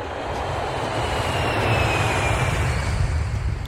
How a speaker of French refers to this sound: Ensuite, tu auras peut-être reconnu l'atterrissage d'un avion.